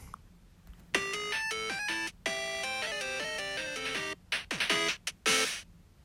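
A bright electronic game jingle of beeping synth tones stepping quickly up and down in pitch, ending in a few sharp bursts and a brief fizzy flourish, loud and alone.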